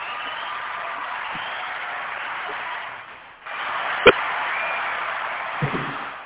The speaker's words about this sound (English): They be cheering loudly.